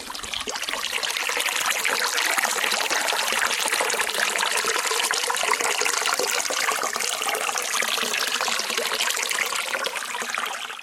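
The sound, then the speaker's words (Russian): Water trickles and babbles steadily from the Aki spring at a river source, 21 km from the settlement of Glazunovka, a continuous bubbling flow that stays even throughout with no voices. “Давайте еще раз послушаем этот замечательный звук воды, эту тишину, которая овеяна это прекрасное пространство.”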